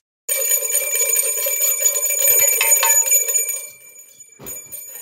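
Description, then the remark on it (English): A bright metallic bell rings out loud, its shimmering tone sustaining for a few seconds before fading, then a second, quieter strike follows near the end. No one speaks. “It's a two bell Tuesday.”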